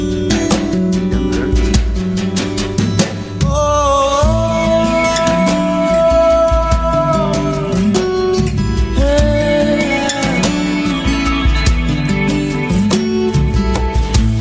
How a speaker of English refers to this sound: So we're going to go to this music break, but please don't go away.